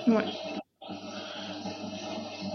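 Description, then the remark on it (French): A dishwasher runs with a steady, rushing wash of water noise that drops out briefly near the start, then continues evenly at moderate volume, with some faint vocal sounds mixed in. “C'est la, chasse, d'eau qu'on entend derrière c'est le lave-vaisselle.”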